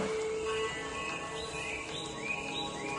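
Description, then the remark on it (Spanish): Birds sing in a jungle in a series of short, rising chirps scattered over a dense, steady background wash, the calls fairly faint. “Puedes escuchar los pájaros cantar, la selva más preciosa, literalmente como un avatar, como un mundo nuevo.”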